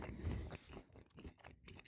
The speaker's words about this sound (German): jetzt werde ich mal zwischendurch hier ein bisschen was Polnisches knabbern